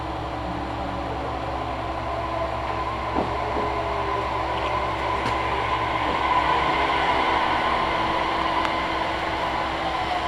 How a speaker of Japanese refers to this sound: まもなく列車が参ります危ないですから黄色い線の内側へお下がりください